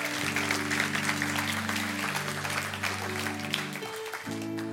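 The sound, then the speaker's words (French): A church audience applauds steadily for several seconds after a prayer, a dense wash of clapping over a sustained low organ or keyboard chord that shifts near the end. “Quelqu'un peut dire Amen, oui, vous pouvez applaudir.”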